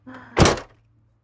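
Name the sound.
car door opening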